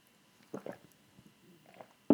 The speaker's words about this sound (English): sip of water, hold on.